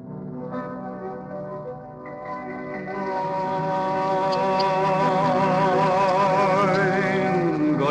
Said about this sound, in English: I'd love to play now that track that you heard in your father in law's car okay. which inspired you.